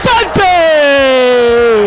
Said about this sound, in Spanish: Para el primero, abrimos la garganta y nos ponemos a gritar.